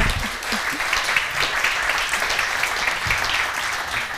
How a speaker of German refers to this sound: Merci. Mit Applaus.